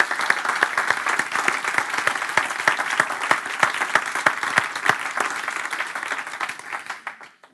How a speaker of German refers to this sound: Darf ich euch auch einladen, mal einen Applaus zu geben, um Gott die Ehre zu geben für das.